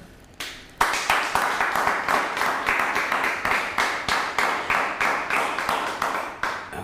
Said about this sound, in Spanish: Dele un fuerte aplauso a Shen, el Todopoderoso, por favor.